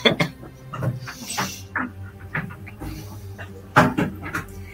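A dog makes short breathy huffs and snuffling noises, mixed with soft knocks and shuffling, like a door or cupboard being moved.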